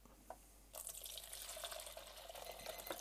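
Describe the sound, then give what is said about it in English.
After a brief quiet moment, developer chemical is poured steadily out of a developing tank at the end of the development time, a continuous splashing gush of liquid that runs to the end with no talking. “start pouring that out.”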